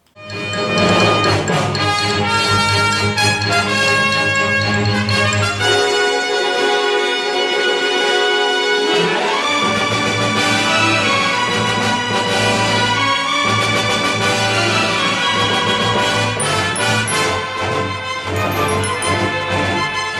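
A loud, lush instrumental film theme plays continuously with no voices, its rich layered melody carrying throughout while the low bass drops away briefly near the start before returning.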